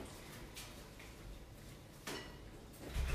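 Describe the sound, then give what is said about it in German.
A freezer drawer is pulled open and pushed shut as a chocolate mixture is put in to freeze, a few sliding clunks and knocks spread over a few seconds, ending with a louder thud. No one speaks. “In die Tiefkühltruhe.”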